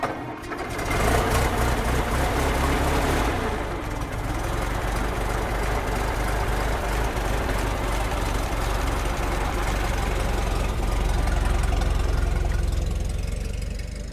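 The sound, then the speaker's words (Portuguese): A hired car's engine idles steadily, a continuous low mechanical rumble with a fast, even chugging that starts after a brief moment and holds throughout without any voices; the car is hailed in Porto in 1952 to go to Rua do Funchal in Foz. “Mal chegado ao destino, Nicolau de Almeida chama um carro de aluguer.”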